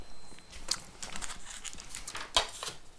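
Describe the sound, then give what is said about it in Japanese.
Sticky, squelching clicks and soft smacks of natto fermented soybeans being stirred, irregular and quiet, with a couple of sharper wet snaps standing out. “このさ納豆ってさ納豆の音でさどうかな ASMR になるかな”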